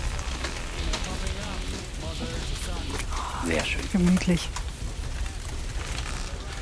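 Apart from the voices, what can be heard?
crackling fire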